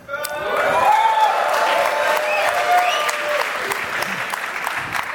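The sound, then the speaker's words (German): An audience at a stage show in Berlin breaks into steady, dense applause that holds for about five seconds, with scattered cheers and raised voices rising through the clapping. “Ja, ja, so, äh, der lügt eh wieder, aber ich klatsche mal mit, vielleicht ist es doch wahr.”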